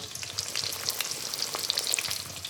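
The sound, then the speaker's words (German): A schnitzel sizzles and crackles steadily in hot oil in a pan, with dense high-pitched spitting and popping throughout, moderately loud, with no voices. “Das Schnitzel ist im heißen Öl drin, schwimmt in der Pfanne herum.”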